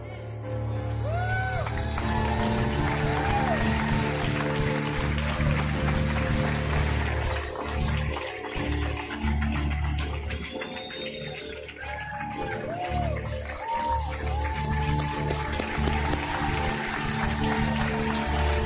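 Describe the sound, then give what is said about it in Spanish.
An audience applauds loudly and without pause for the whole stretch, a dense wash of clapping mixed with scattered cheers and whoops, over a steady low musical hum. “Fuerte, fuerte, fuerte, fuerte, fuerte, fuerte ese aplauso.”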